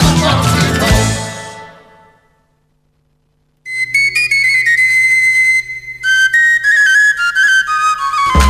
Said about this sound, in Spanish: Ya hemos escuchado esta sevillana